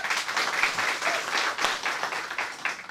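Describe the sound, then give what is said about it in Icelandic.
A crowd applauds an author presenting her book, many hands clapping in a dense, continuous patter that holds at an even loudness for the full few seconds, with no voices standing out. “Takk fyrir Takk kærlega fyrir að koma verið velkomin fagnar með mér”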